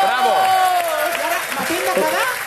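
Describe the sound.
Loud, steady audience applause, a dense crackle of many hands clapping, with voices calling out and talking over it throughout.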